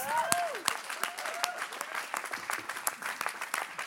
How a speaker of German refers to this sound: Hey, danke euch zwei. Einen riesen Applaus.